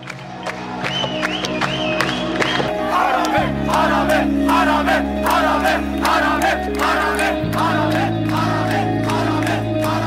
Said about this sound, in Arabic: أول ميكس حقيقي سجلته ب 2015 كان معي مكنة تسجيل صوت بمظاهرات بيروت سجلت أصوات المتظاهرين وصريخهم